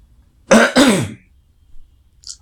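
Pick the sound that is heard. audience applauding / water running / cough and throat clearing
cough and throat clearing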